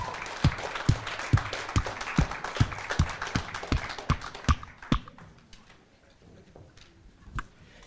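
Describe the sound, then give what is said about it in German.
A crowd applauds a worship band at a church worship evening with a loud, steady rhythmic clap about twice a second over a dense wash of clapping, then the applause thins and fades, leaving a few scattered claps near the end. “Er gibt der Worship Band mal einen fetten Applaus.”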